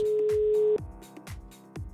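A telephone line hums with a steady tone for under a second, then gives way to a quick, evenly spaced series of dialing beeps, fairly loud, with no voices.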